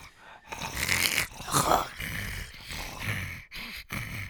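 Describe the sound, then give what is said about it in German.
The film creature Gollum writhes with rasping, gurgling growls and wheezy, snoring-like breaths, fairly loud, in a few continuous bursts with brief pauses between them. “Ja, der gute Gollum, der, der windet sich da gerade so ein bisschen.”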